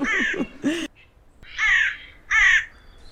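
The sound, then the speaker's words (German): Four harsh, raspy crow-like caws, two close together and then two more spaced out after a pause, loud. They sound like a human voice imitating a crow. “Die arme Krähe.”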